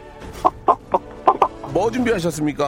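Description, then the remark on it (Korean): A person imitates a rooster with about five short, sharp clucking bursts, then a longer wavering crow-like call, as an entry in a voice-impression contest on a Korean radio show. The voice sounds loud, with a brief laugh and some speech. “뭐닭 울음소리 뭐.”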